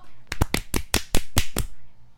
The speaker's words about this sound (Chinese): 拍手。